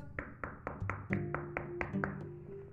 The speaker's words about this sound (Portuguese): O lobo bateu na porta